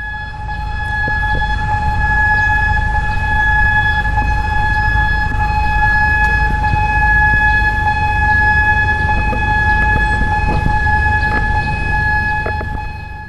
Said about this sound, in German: Das waren die Sirenen um das Krankenhaus rum.